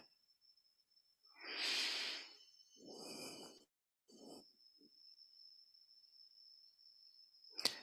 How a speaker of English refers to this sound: breathing in and out.